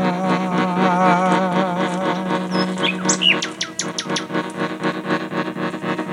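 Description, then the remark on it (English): Bright bird chirps and whistles burst out over a steady, wavering droning tone, with a quick flurry of calls in the middle, then softer twittering continuing beneath. “So early in the spring, when the small buds they do whistle loud,”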